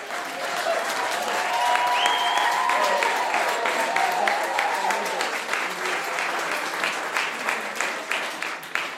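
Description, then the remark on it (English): A live audience applauds steadily for about nine seconds, a dense wash of clapping with a few cheers or whoops rising briefly early on, then thinning into more distinct claps near the end. “and you can hear the crowd in this podcast, which, oh.”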